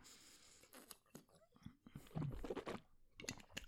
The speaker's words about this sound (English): Just had a quick sip of water.